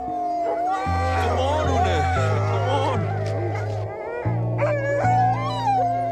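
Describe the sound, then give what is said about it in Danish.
A team of 12 sled dogs on a sledge journey in the Arctic wilderness howls together with wavering, drawn-out cries and occasional barks, loud, over a steady low droning tone underneath. “River to år ud af kalenderen og begiver sig ud på risikable slæderejser i den arktiske ødemark i månedsvis, uden andet selskab end en makker og 12 hunde.”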